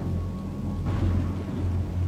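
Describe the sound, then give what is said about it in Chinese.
A thunderclap breaks about halfway through over a steady, deep rumble of a storm, swelling into a broad, loud roar that keeps rolling to the end. No voices. “遮挡着电光，似乎强大的闪电惊雷都无法逾越他。”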